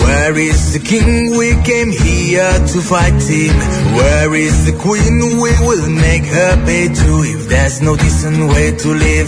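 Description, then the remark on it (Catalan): A loud English-language rock song from a new EP, a male voice singing steadily over driving drums, bass and guitars, the full band playing continuously throughout. “que ja l'havia publicat com un avançament i sona així.”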